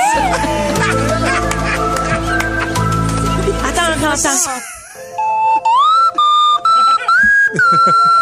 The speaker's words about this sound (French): Je le veux comme sonnerie. Ah, c'est bon! Je veux tout entendre à la flûte à coulisses désormais.